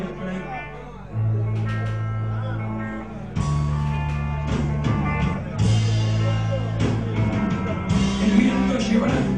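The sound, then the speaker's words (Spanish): A rock song by a band from Mar del Plata plays loud, with a sung vocal over sustained bass notes and dense guitar, the band surging harder a few seconds in and again near the middle. “una banda de Mar del Plata que se llamaba …, …, que suena así.”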